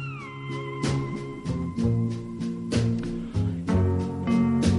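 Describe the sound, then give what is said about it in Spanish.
A slow, calm instrumental plays, with a gliding steel guitar melody sliding between long, sustained notes over soft, steady chords. The music is clear and fairly loud, with no voices. “quiero ver si puede sonar la canción, no me acuerdo, la de …”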